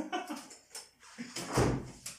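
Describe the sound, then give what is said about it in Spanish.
A locked wooden front door creaks and cracks, a few scattered groans and knocks building to one louder crack near the end, with no talking. “Eh, la puerta principal tiene, o sea, obviamente está con llave, pero como es de madera, tiene mucho como, tiende mucho como a... A tronar o... como a crujir.”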